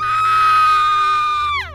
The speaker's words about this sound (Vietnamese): Cô chỉ kịp thét lên một tiếng